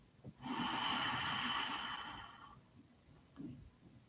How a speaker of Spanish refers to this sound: Exhalamos suavemente. Inhalamos